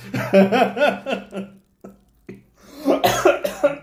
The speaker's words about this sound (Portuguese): É a gente irritando que tosse, né?